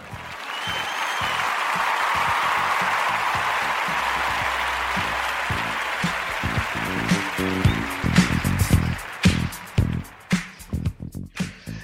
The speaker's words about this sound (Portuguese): E palmas para ele. Palmas para Alan. Pera aí, deixa eu tocar aqui de novo. Lá vai.